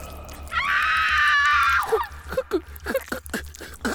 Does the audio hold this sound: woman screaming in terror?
yes